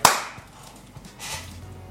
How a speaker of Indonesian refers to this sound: Kok tepuk tangan?